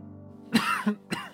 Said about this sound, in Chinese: 叶凡被呛得咳嗽了一声